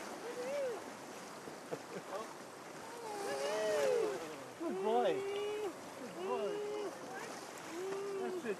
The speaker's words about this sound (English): That's a fine big wave. Another one coming, bud.